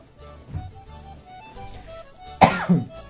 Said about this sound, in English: Excuse me. It wasn't really a cough, more of a. I had a bit of a throat scratch I had to do something with.